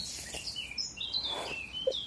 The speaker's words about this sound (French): T'entends l'oiseau, c'est incroyable. Hein. c'est comme ça tout le temps. Moi, je suis obligée de mettre des boules qui est Même la nuit, il y a, un peu moins de bruit parce que les oiseaux dorment, mais quand même.